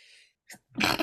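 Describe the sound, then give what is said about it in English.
A single loud sneeze: a breathy inhale builds up, then a sharp explosive burst of air and voice that ends abruptly, with no talking around it. “Gesundheit.”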